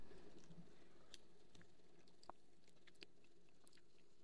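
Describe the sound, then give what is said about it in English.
A quiet sip of a mojito topped with club soda and ginger ale, taken from a glass, with soft wet mouth sounds and a few small clicks scattered over a low background hush; no one speaks. “And of course, first sip.”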